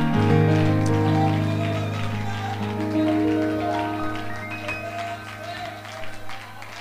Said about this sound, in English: Would you give him a hand clap of praise before you're seated tonight? The Bible says that not only clap, but add a shout to your hand clap. Would you clap and shout right now?